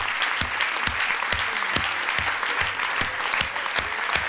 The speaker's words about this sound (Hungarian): Adjunk az útnak egy nagy, nagy, nagy, nagy, nagy tapsot.